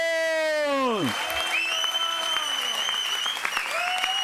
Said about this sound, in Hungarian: Adjunk az Úrnak egy nagy tapsot!